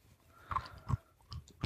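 Quiet chewing of soft nuts from a Trader Joe's natural mixed-nut pack: four muffled, moist crunching bites in a steady rhythm, each one brief, with no talking.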